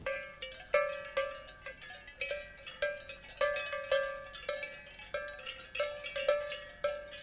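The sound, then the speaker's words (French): Many clanking bells on a shepherd's flock moving along a road ring together in an irregular, overlapping jangle, with frequent metallic strikes and steady ringing tones throughout; no voices. “Puis ça fait une jolie musique sur la route, ça. Puis le berger aussi, il est fier d'entendre ça dans son troupeau.”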